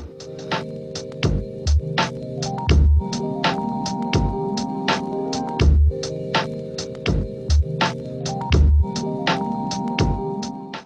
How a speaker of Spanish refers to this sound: ¿Cuál es la, opción low-fi, la A o la B? Para mí es la B. Correcto, bravo. Muy bien. Genial, ese Era como low fi hip Hop. Ah, ahí va, ¿no? Claro, el low fi está ligado un poco al hip hop, ¿no? Eh, sí, tiene ese beat